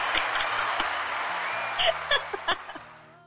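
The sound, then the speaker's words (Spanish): A burst of clapping from a small group at the end of the Impro Roomies improv segment, steady, with a few louder claps and faint voices near the end before it fades out. “Ay, sí, ay, sí, aplausos muchachos.”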